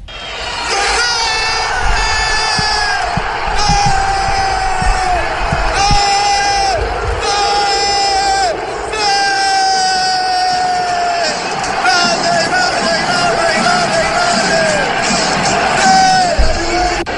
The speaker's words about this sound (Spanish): pero apenas escuchó el grito del estadio empezó a gritar gol, como si fuera eh, esto fue lo que hizo, narró el partido, el gol de Ronaldo.